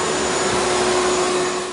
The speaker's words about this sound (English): Uh, what is this? A vacuum cleaner? Can you hear me right now? This is awesome. I can play a vacuum cleaner.